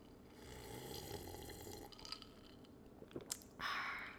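Drinking sounds with liquid noise, then a couple of sharp wet lip smacks and a breathy, satisfied exhale at the end.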